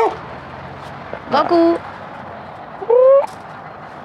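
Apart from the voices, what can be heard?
dog barking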